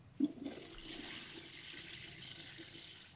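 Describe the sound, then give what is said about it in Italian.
A toilet flushes in an office bathroom, opening with a sharp clunk and then a steady rushing gush of water that carries on without pause, with no voices over it. “uno scroscio d'acqua perché ovviamente sono in bagno mentre vi parlo”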